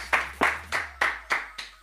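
Six steady, evenly spaced hand claps ring out in a quick rhythm, moderately loud, with no talking, a short burst of applause for a musician joining by telephone line.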